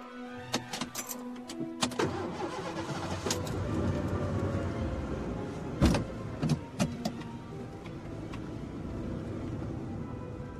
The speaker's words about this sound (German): Moment, ich schalte mal den Motor aus.